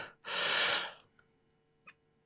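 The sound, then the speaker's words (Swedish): A single deep, forceful breath drawn in after a sip of water to stop hiccups, lasting about half a second, followed by quiet with a couple of faint clicks. “Och sen gör, tar du ett riktigt djupt andetag så här.”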